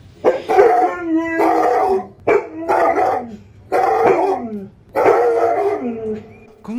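Dogs bark and howl in five loud bursts, each yelp sliding downward in pitch, with brief pauses between. No one speaks over them.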